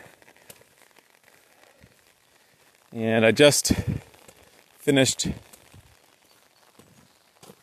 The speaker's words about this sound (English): It's a rainy day. You can hear the raindrops on the umbrella. And it, thankfully, it's warm.